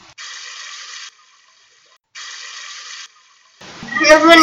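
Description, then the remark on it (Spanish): Flowing river water rushes in two short, steady bursts separated by silence, fairly loud, before a voice starts speaking over a final swell of water. “Al cabo de dos horas de andar, llegaron a un río”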